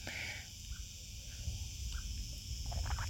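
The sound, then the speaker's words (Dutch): Crickets chirp steadily in the background, a soft continuous high-pitched trill over low outdoor rumble, with a few faint bird-like chirps scattered through and no one speaking. “De krekels op de achtergrond worden ook eh, een beetje wakker.”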